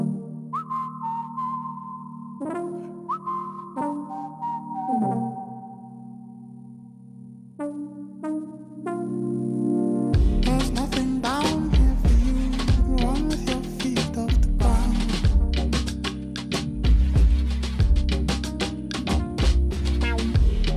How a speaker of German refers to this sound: Und in seiner Musik, da vereint er eben so Afrobeat, Soul und Hip-Hop und das klingt dann beispielsweise so.